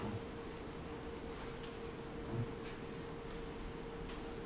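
A clock ticks softly and steadily, with faint, evenly spaced clicks set against a low background hum. No one speaks.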